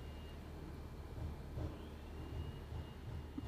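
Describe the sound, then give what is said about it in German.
A leaf blower drones steadily outside, a muffled motor roar with a faint high whine that holds constant throughout, with no one speaking. “mit dem Laubbläser.”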